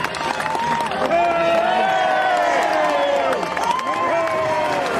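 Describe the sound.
A tightly packed, jostling crowd scrums around the Taoiseach at a shop, people kicking and elbowing to keep near him, many voices calling and talking over one another in a loud, continuous clamour with scattered shouts and cheers.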